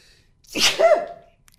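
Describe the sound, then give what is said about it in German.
A single sharp sneeze, a breathy burst followed by a short voiced tail, with quiet before and after. “Was mich daran tatsächlich so ein bisschen äh, abturnt, ist, dass ich gleich niesen muss.”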